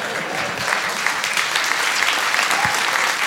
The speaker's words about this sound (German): Mobbing! Der Applaus war für Mobbing.